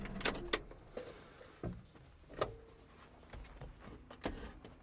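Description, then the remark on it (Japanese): A car settles to a stop while being parked in the large parking lot of a rural Lawson convenience store, where about ten cars are parked, its low engine rumble continuing underneath a handful of sharp mechanical clicks and clunks spaced irregularly, heard from inside with no one talking. “ローソンにちょっとついちゃったんですけども駐車場に止めてもう少しだけね話そうと思います結構いっぱいいるな10台ぐらい車止まってますね田舎のコンビニは駐車場があれですね広くていいですけども今止めます”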